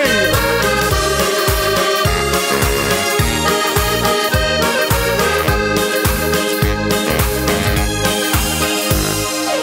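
A new pop record played on the radio, loud and full, with a punchy regular beat, thumping bass and bright layered instruments filling the whole stretch, no talking over it.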